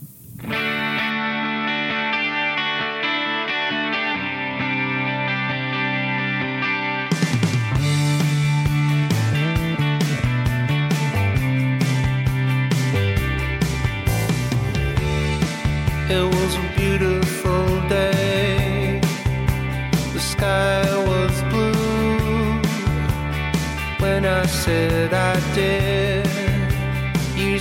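A music track plays, opening with a muffled, filtered intro before a full band with distorted electric guitar and steady drum hits kicks in, loud and continuous, with no voices.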